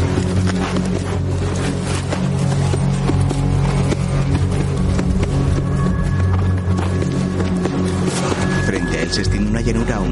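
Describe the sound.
A tired horse's hooves clip-clop at a steady walking pace as its lone rider advances over a hill, partly buried under a dense, continuous bed of music and low rumble, with a voice faintly present in the mix.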